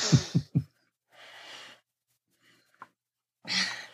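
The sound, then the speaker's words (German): Someone drinks colored sugar water: three quick gulping swallows, then a long breathy exhale, a small wet click, and another audible breath out after a pause. No talking. “Entschuldigung, ich muss was trinken.”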